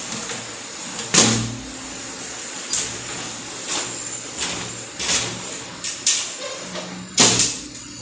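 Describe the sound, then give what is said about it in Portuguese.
A window is slid and pushed shut: a series of scraping slides and knocking bumps at irregular intervals, one louder thud near the end, over a steady hiss of heavy rain. No one speaks. “Pera aí, deixa eu fechar a janela aqui.”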